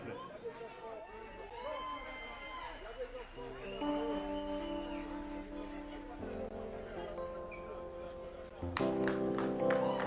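Audience applause at a concert in Martinique fills the opening seconds as a singer is introduced, a dense crowd-wide clatter mixed with cheering and chatter, before steady sustained musical tones take over and the clapping fades beneath them.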